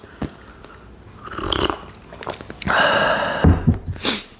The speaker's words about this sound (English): this me drinking so close to the uh, to the microphone is specifically for Ryan Remington, specifically. And it's not coffee, but you can still hear it kind of go down my throat, and it's amazing.